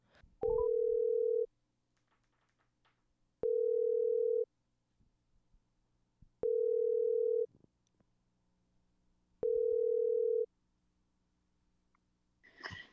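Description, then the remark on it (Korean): A telephone ringback tone as a phone call is being connected, pulsing four times, each steady tone lasting about a second with roughly two seconds of quiet between, clear with no talking. “자, 그러면 어, 요즘 어떻게 지내는지 굉장히 궁금한 분한테 전화 연결을 한번 해보겠습니다.”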